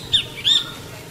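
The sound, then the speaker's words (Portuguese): A rufous hornero (João de Barro), perched up above, gives two sharp, high-pitched calls in quick succession, the second slightly longer, over a low steady background rumble with no talking. “Ó, João de Barro, bem ali em cima.”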